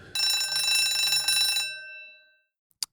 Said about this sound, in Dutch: Oh, dat was de bel. Dat eh, betekent dat we even de netten gaan ophalen.